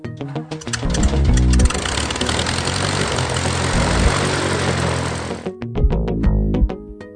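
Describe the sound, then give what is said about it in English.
Loud propeller airplanes roar as they fly nearby, a dense droning engine sound with a throbbing low hum that holds steady for several seconds, then cuts off into a few rhythmic thumps. No one speaks. “You're going to be hearing a little bit of background noise throughout the day, but it's just airplanes, so it's not, it's, it's not really noise.”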